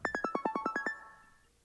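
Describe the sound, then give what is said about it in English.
A phone rings with a quick melodic ringtone: about nine bright, evenly spaced electronic notes stepping up and down in pitch, then a lingering tone that fades out. No one speaks. “Is the phone ringing?”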